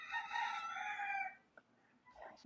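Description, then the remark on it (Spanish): A person, excited, imitates a rooster's crow with one loud, drawn-out call lasting over a second, then it cuts off into near quiet with a few faint rustles and a breath. “Yo dije como el gallo, estaba bien pompeada, no me podía callar.”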